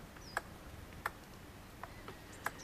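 A red squirrel gives a few sharp, dry clicks, about four or five spaced irregularly apart, quiet, with a faint high chirp in the background and no voices.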